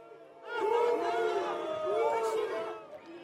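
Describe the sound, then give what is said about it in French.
A crowd of protesters at a demonstration boos police units making offensive charges to help riot police (CRS) and gendarmes. Many voices merge into a sustained, wavering jeer that swells for about two seconds and then fades. The crowd sounds fairly loud. “Bien souvent, sous les huées des manifestants.”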